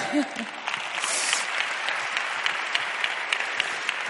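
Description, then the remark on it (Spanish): A crowd claps steadily for a few seconds, applauding themselves after singing together, a dense patter of many hands, with a brief voice sound at the very start. “¿Nos aplaudimos?”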